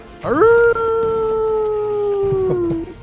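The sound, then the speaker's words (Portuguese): A dog lets out one long, loud howl that rises quickly and then holds a steady, slowly sagging pitch for over two seconds before trailing off. No one speaks over it. “Uivando como se não houvesse amanhã.”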